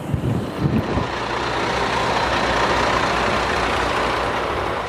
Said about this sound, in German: Da kommt der Bus.